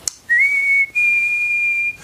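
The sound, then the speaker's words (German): A person whistles two long, steady notes as ear-training practice for musical intervals, whistling along with a repeating audio file. The first note slides up into pitch and the second is held slightly higher, forming a simple interval, with no talking. “Ba, ba, zum Beispiel oder, hm, hm, oder pfeifst mit.”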